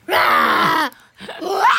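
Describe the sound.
A voice imitates the roar of a bear character in a children's story, in two loud, drawn-out bursts of 'hou', the first about 0.8 seconds long and the second rising in pitch, separated by a short pause.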